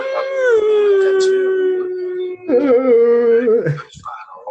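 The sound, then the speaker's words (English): A long, loud howl holds a steady pitch and slowly sinks, then after a brief break a second, wavering howl rises and trails off, unaccompanied. “That howling sound is 100% a ghost fart.”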